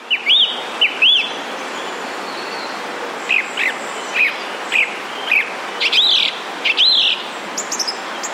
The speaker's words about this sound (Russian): Певчий дрозд повторяет по два раза, по два раза.